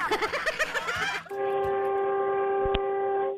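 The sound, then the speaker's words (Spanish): A tractor-trailer's air horn, sounded by a trucker driving through Louisiana, blasts one loud, steady, multi-toned note for about two seconds, after a second of rapid, throbbing tonal pulses. “Ahí el tráiler bastante y quiero escuchar el pitote.”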